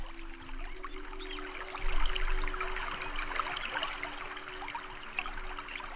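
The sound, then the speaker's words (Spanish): Steady rushing and babbling of a flowing river, continuous, with a faint low hum underneath and no voices. “El río quedó limpio y hermoso.”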